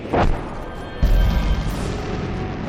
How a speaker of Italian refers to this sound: Non sono cannonate, colonnello, sono esplosioni.